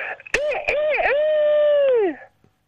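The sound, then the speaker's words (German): A human voice imitates a rooster crowing: a few short sharp onsets, then one long, loud, strained call that wavers in pitch, holds steady, and slides down as it fades out. “Das war jetzt ein Hahn.”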